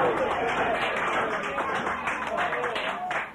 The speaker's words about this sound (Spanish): Se acerca también la procesión de la capilla Nuestra Señora de Lucán, con escolta de bandera y jinete. ¡Un aplauso!